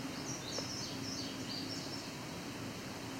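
A male indigo bunting sings faintly, a quick run of high, paired chirping notes over a steady hiss of background noise.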